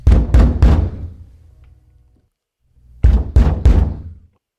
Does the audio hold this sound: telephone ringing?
no